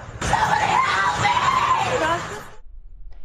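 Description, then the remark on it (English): A person screams for help at night near a van in Los Angeles County: a loud, desperate, strained, wavering cry of about two seconds that cuts off abruptly, leaving faint background noise. “But the real question who was screaming for help?”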